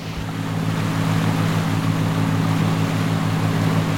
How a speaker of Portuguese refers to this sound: Subimos no barco do seu Neco e saímos por um trajeto onde a pesca é monitorada há muitos anos